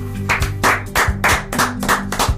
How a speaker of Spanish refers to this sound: primero un aplauso.